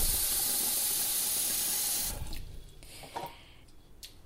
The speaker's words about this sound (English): It doesn't say how much water to use. So I'm just going to fill up, I don't know, about half a pot full.